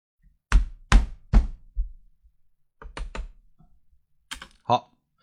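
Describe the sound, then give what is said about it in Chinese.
Four heavy thumps of a fist deliberately banging on a desk in quick succession, then a pause and a few scattered clacks of keyboard typing, with quiet gaps between, recorded as noise for an audio editing demonstration. “我刚才专门砸了几下桌子啊，砸了几下桌子，然后那个敲了一下键盘。”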